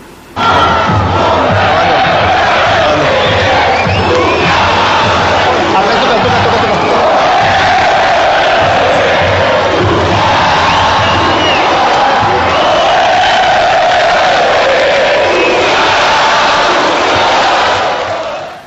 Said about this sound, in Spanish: ¿Quieres escuchar un poquito del ambiente del Tuca? Sí, sí, sí, adelante. Mira, el audio 10, pana, así le cantaban los de Tigres al Tuca Ferretti.